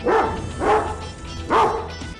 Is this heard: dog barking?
yes